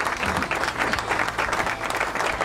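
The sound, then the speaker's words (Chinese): A crowd applauds steadily, many hands clapping in a dense, continuous patter that holds an even loudness throughout the couple of seconds, with no voices. “功夫不负有心人嘛，这一年你所有的努力都没有白费哈，掌声恭喜你！”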